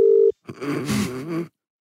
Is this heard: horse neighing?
no